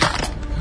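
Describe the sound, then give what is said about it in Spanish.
A brief, loud crunching crash of a mobile phone smashing against a hard surface, with a burst of rattling, clattering debris over well under a second and no voices. “se hizo bosta el celular.”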